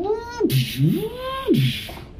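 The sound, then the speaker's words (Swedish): A voice imitates whirring robot servo sounds, with pitch gliding down and back up in a few smooth mechanical sweeps, fairly loud, over about two seconds. “Och när folk börjar komma till så hör ni så här mekaniska läten.”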